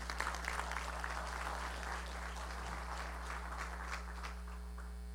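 An audience breaks into steady, dense applause, many hands clapping together in a sustained wash for several seconds, with a low constant hum running underneath.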